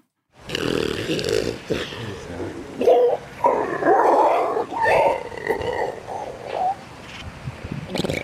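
A grey seal vocalizes with a drawn-out series of moaning, wailing calls that swell and dip for several seconds, loud and unaccompanied by any talking.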